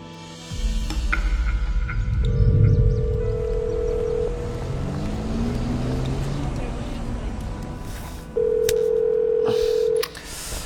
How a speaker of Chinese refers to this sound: 怎么蝴蝶电话一直打不通啊？